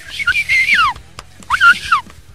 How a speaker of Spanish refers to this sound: Sí, señores, no me sale el chiflido,